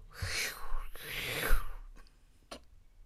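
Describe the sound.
A voice mimics a rowing machine with two long, breathy whooshing strokes in steady rhythm, followed by a couple of faint clicks. Fairly soft, with no other sounds around it.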